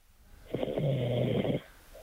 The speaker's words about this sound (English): He's not even there. So he's, he's snoring. He actually fell asleep.